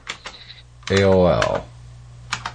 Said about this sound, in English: So you know, you know what that means. You get the clicky keys